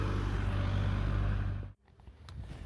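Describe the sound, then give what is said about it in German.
The engine of a Canyon SRAM cycling team car rumbles loudly for a second and a half as it pulls up, then cuts off abruptly, leaving quieter background noise behind. “Ja, außerdem fuhr gerade ein Wagen vor von Canyon SRAM.”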